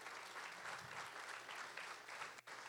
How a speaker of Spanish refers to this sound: Y las suegras también, un aplauso a todas las suegras de la casa y las que no están también.